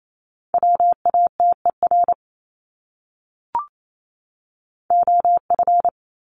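Morse code beeps at 28 words per minute: a steady mid-pitched tone keyed into quick dots and dashes spelling a common English word, sent as two matching bursts with a pause and a brief click between them.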